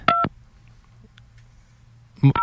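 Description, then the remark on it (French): A phone number being dialed: two loud, steady keypad tones, one at the start and one at the end, separated by about two seconds of quiet low hum. “Là, on appelle qui?”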